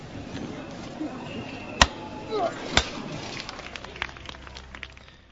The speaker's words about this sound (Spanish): Y así suena este martillo en forma de Ave María como ofrenda a María Santísima.